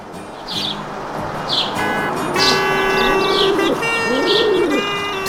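Sparrows chirp in short, repeated bursts, with a low cooing call of a pigeon joining partway through, all over a steady wash of street traffic in the background.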